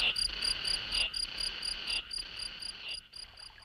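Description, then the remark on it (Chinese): Crickets chirp steadily in a fast, even rhythm of shrill, high-pitched pulses that continue throughout, moderately loud, with no voices. “蟋蟀在树下也张开大嘴巴，和蝉先生一起唱了起来。”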